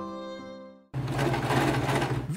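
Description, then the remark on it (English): A sewing machine runs steadily, stitching colorful cloth masks, its motor whirring and needle chattering in a fast rhythm, after a brief humming tone fades out at the start. “Vicky, Doe is an accomplished seamstress who spends hours at her sewing machine making colorful cloth masks.”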